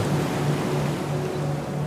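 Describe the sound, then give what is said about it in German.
Ocean waves wash steadily onto a sandy beach, a continuous broad rushing roar with no distinct breaks, heard alone at a moderate, even level with a faint low hum underneath. “Nur deine Fußabdrücke sind noch im nassen Sand zu sehen. Von hier aus kannst du das gar nicht sehen, aber auf hoher See drückt der Wind”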